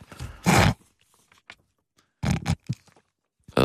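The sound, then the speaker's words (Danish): Loud, wet snorts of snot being sniffed up the nose: three harsh, noisy bursts with short pauses between them, with no talking. “Det, det er en virkelig ulækker lyd. Det. Hvad tænker du på? Når du suger, ind, når du suger snot ind i, i næsen der.”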